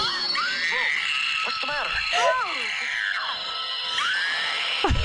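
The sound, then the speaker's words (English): A cartoon character screams in loud, high, wavering bursts that rise and fall repeatedly over a few seconds, mixed with animated dialogue and a slightly tinny, replayed sound. “But right, but the screaming sounds a little like this.”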